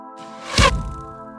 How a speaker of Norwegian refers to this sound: De har gjort alt rett, og flere pilspisser trenger inn i målene sine.